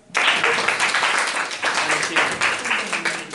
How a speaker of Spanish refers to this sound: Así que reciban con un fuerte aplauso